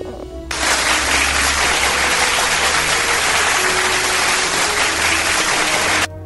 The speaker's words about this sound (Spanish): Aplausos para Lore por esta bonita petición.